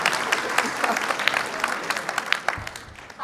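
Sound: audience clapping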